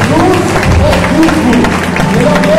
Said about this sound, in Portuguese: Aplauda o Senhor, aplauda o Senhor. Agora, Deus, aplauda o Senhor, agora, Deus.